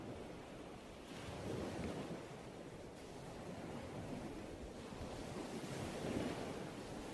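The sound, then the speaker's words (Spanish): Sea waves wash and break on a shore in a steady, broad roar, swelling gently at moments, with a soft wind hiss blended in and no voices. “Disfruto del movimiento. Disfruto del sonido. Disfruto del olor a mar.”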